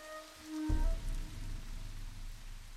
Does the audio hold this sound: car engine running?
no